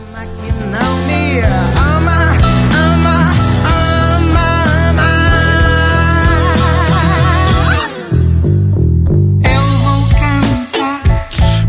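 A loud, full pop song with a woman singing over a steady band, the melody wavering with vibrato; the music briefly thins out near the end before kicking back in.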